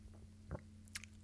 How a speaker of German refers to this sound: Das war jetzt aber auch das Geräuschrätsel. Das war das ne? Geräuschrätsel. Das ist nämlich ein Klettverschluss. Ah, ah, ah, der ganz böse klingt wahrscheinlich über das Mikrofon.